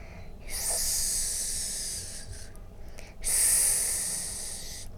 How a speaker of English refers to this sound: The snakes slither up her arms and neck. They make an eerie hissing noise.